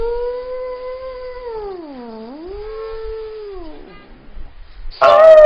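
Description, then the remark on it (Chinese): A voice imitates howling wind with one long, wavering hoot that dips in pitch and climbs back over about four seconds. It ends with a short, louder rushing burst. “嗖，又过来一股风声，嗖一声。”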